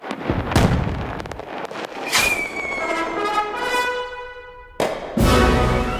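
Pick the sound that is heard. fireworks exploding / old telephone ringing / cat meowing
fireworks exploding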